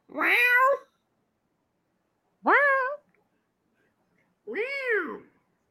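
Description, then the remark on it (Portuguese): Three separate cat meows from a meme audio clip, each a rising-then-falling harmonic wail under a second long, spaced by pauses of over a second, clear with no talking. “é, é o meme do, do gato, né? É do gato.”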